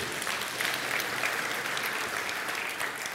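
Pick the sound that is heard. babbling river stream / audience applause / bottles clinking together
audience applause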